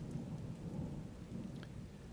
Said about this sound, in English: The thunder follows, bursting from the cloud with sudden and tremendous clashes. The voice of the Lord is redoubled with violence and overwhelms us with terror it rattles over our heads as though the whole house were broken down at once with a stroke